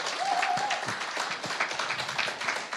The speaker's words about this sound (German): Die sitzen im Kino in der Schauburg und gibt doch mal einen Riesenapplaus an alle Dortmunder von hier aus.